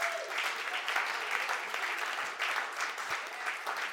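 Steady audience applause, a dense wash of many hands clapping at an even level throughout, with no break and no voices standing out above it.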